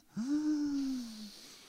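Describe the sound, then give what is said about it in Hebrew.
A single long, deep breath, drawn in with a faint voiced, sighing tone. It lasts just over a second, and no one speaks over it. “קח נשימה.”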